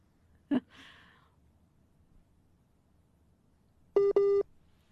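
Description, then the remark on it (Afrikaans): A dropped phone call ends in a busy tone: two loud, steady electronic beeps close together near the end, after a sharp click and a soft breathy rush earlier on a faint line hiss. “Ja, ons het, ons is 'n bietjie van 'n uitdaging met die foon, maar ons sê vir baie dankie”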